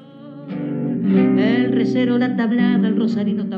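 A milonga played on guitar, with full, ringing notes and sustained chords flowing steadily at a moderate volume. The passage is brief and instrumental, with no voices.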